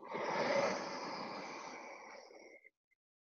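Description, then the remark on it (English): A single long, hushed, throat-constricted ujjayi inhale during yoga practice, with a steady ocean-like rasp that swells briefly then fades out after about two and a half seconds. “Generate Ujjayi breath, throat breathing.”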